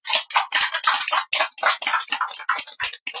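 A small group in a room, at a small-scale programme recording, claps steadily for a few seconds to congratulate someone on happy news, the crisp, bright hand claps bunching into short overlapping bursts with brief gaps, no voices over them.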